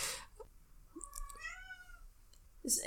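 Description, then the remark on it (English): A cat gives one drawn-out, wavering meow while waiting to be fed the second half of its food, with a few faint clicks and soft rustling around it and no one talking. “Um, the cat gets fed in two halves now because otherwise she's too greedy and wolfs the tea and then throws it back up.”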